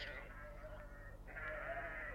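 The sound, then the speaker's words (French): Sheep bleat in a low, drawn-out way, one long wavering call running into another, with a steady low hum beneath and no talking; some of the sheep heave big sighs. “On entendait quelques-uns d'entre eux pousser de gros soupirs.”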